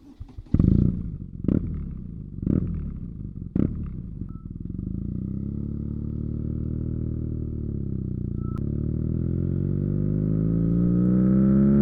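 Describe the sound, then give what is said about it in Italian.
A modern BMW Motorrad boxer motorcycle engine starts with a few sharp, punchy bursts, then settles into a steady, deep, throbbing run that gradually rises in pitch and loudness, with no voices. “Insomma, il motore boxer di BMW Motorrad compierà 100 anni fra 3 anni, un motore che all'inizio suonava così negli anni 90 suonava così.”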